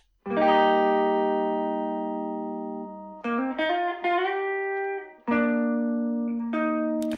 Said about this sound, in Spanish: Estas guitarras que son las eléctricas, las grabé con una guitarra Stratocaster Defender